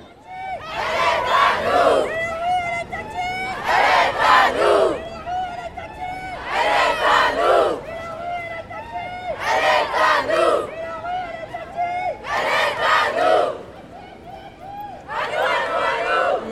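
A large crowd chants in unison outdoors at a feminist march in Nantes, six loud rhythmic bursts of shouted slogans spaced a couple of seconds apart, with brief murmuring lulls between each call.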